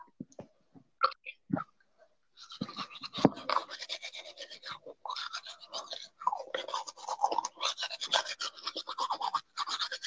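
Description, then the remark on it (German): Steady scrubbing of a manual toothbrush against teeth, a rapid bristly rasp that runs for several seconds after a few soft clicks and knocks at the start. “Okay, warte, ich hol kurz meine Zahnbürste.”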